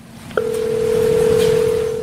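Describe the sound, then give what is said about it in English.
A steady, unbroken telephone tone on a courtroom line in Kenosha switches on abruptly and holds at a constant pitch for nearly two seconds, loud, over a low murmuring background. “and apparently taking some phone calls.”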